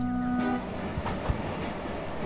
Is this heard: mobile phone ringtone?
no